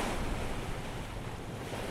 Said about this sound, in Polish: jak było słychać yy, podczas tej zmiany wiatru orkan mnie wyprzedził